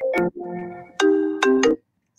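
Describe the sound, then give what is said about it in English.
A phone ringtone from an incoming call plays a short melodic phrase of bright electronic tones, loud, with no voices over it, before cutting off into silence. “A high chance that you were going to get a call in the middle of a podcast.”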